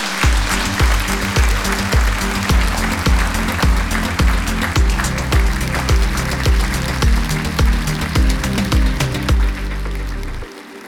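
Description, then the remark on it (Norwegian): Audience applause crackles steadily for about ten seconds, a dense wash of claps over a low, rhythmic bass line, then stops abruptly. “Ja, det får fortjener en applaus.”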